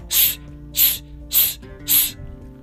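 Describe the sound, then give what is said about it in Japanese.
Four short, crisp voiced "s" hisses, evenly spaced about every half second, each a sharp sibilant burst cut off quickly, with a faint tonal hum underneath; pattern 1 of a fast breathing exercise, each "su" done crisply with the force released at once. “これが非常に、おそらく1回目はなかなかついてこれなくて、スススみたいなこのなると思うんですけど、これをしっかりあの最初のあのパターン1をしっかり歯切れよくさっき言ったようにあのススはいですぐ力を抜くってことは大事ですねこのね”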